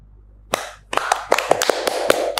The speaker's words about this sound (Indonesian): Kita boleh tutup podcast hari ini dengan tepuk tangan bersama Mas dan juga Mbak.